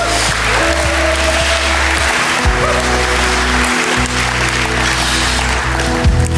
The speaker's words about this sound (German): Danke erstmal an die Anbetungsgruppe. Gib mir mal einen lieben Applaus. Das war herrlich.